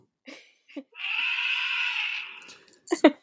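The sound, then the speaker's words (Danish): Elephants roaring: one long, loud, brassy blare lasting over a second, with short harsh bursts just before and a couple of rough calls right after. No one talks. “Det er simpelthen elefanter, der brøler.”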